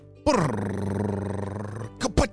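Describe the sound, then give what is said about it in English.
A voice imitates a drumroll with a loud, fluttering rolled trill that runs for over a second, then finishes with two short, punchy vocal hits, introducing birthday celebrations on Kids Short Stories. “Drumroll, please.”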